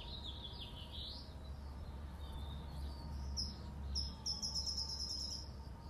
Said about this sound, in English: I love the sound of the birds.